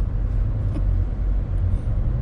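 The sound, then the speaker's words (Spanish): A steady, deep engine rumble fills the space as a car drives along, heard from inside the cabin with muffled road noise and no voices. “En el coche de Ellie.”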